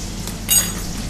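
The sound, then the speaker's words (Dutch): A single bright metallic scrape of a large serving spoon against a pan rings out as fries are stirred, over a steady low frying sizzle, brief and moderately loud. “qua draaien vind ik eigenlijk een hele grote opscheplepel of whatever vind ik fijn om te draaien”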